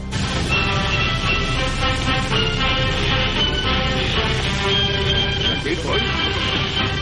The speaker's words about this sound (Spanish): Oye, marchas militares en Radio Nacional.